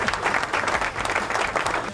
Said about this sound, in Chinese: 给点掌声。